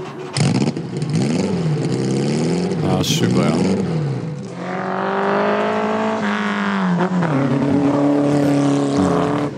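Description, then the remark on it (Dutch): A Porsche 718 RSK Spider race car, chassis 718-004 of 34 built, revs its engine loudly, its pitch repeatedly climbing and dropping, then holding a steady high drone, with a brief spoken remark over the start. “718 RSK Spider. Laten we even luisteren.”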